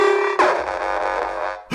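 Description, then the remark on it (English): A loud electronic alarm, designed to go off when Aaron Nola signs with another team, blares: a steady buzzing tone jumps into a harsh, distorted wail that sweeps downward and keeps sounding for over a second before cutting off abruptly. “That's the alarm I designed to go off for when Aaron Nola signs for another team!”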